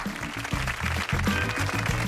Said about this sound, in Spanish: Gracias, gracias por los aplausos.